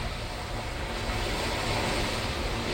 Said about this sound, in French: Écoutez bien ce qui va se passer même à la verticale, tellement les vagues sont énormes.